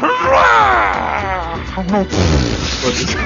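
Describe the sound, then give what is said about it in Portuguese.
A human voice imitates a goat's scream: a loud, strained, wavering bleat that rises and bends in pitch, breaking into a second harsh cry, with no words spoken. “Preferi que você grita. grita faz o grita cabra, pelo menos, pra acabar bem.”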